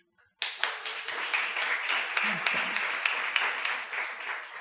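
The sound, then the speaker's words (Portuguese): A church crowd bursts into sustained applause for the women who work in the church's social action, many hands clapping in a dense, steady roar with sharper individual claps popping through, continuing evenly for several seconds after a sudden start. “As mulheres que estavam lá ontem, que assim que eu tenho visto trabalhando aqui na, na, na ação social, trabalhando na trocaria, trabalhando no Mosaic Kids, mulheres sensacionais que merecem uma salva de palmas.”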